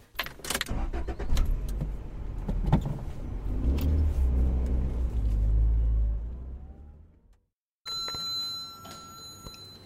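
A car starts with a few clunks and rattles, then its engine rumbles and revs loudly as it drives off, followed by a short silence and a steady electronic chime.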